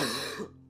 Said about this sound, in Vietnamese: Âm thanh đó là tiếng ho khan của một người đàn ông